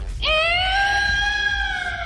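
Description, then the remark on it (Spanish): A cat yowls in one long, loud, wavering cry that starts abruptly, holds a high harmonic wail for nearly two seconds, and sinks slightly in pitch over a low rumbling background. “Es un gato, pero no hidráulico.”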